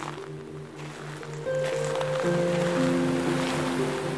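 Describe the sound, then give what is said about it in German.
A steady rushing wash of ocean surf striking black rocks on a coast rolls on without distinct breaks, blended with a sustained, humming tonal drone that swells slightly partway through; no voices. “Du hörst das Rauschen der Wellen, die an schwarze Felsen schlagen.”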